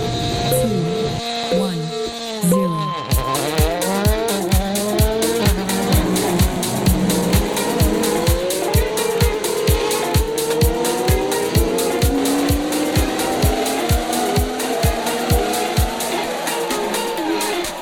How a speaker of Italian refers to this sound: Senti, Formula 1, motori di una volta, i V12, i V10, non ci sono più, ora sono tutti ibridi.